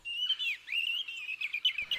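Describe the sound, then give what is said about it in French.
A European robin sings a fluid, high-pitched song of thin whistles and rapid trills, continuous, with no voices. “Comme son nom l'indique, le rouge-gorge familier est peu farouche, assez confiant, et n'hésite pas à s'approcher de jardiniers au travail pour attraper lombriques, larves ou insectes sortis de terre.”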